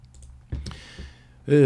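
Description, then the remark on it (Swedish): A couple of quick computer mouse clicks, selecting Russia as the answer in a geography quiz, over a quiet low hum, followed moments later by someone starting to speak. “klickar på... Bara på Ryssland.”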